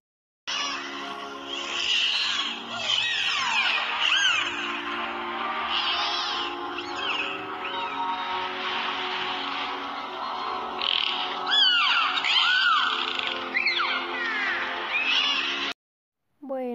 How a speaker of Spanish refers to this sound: Ahora deleitémonos de los sonidos que emite un delfín y lo curioso es que no tiene cuerdas vocales, en su lugar utiliza los músculos de la nariz.